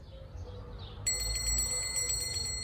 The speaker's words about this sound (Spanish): Si quisiéramos poner el timbre encima de la cabeza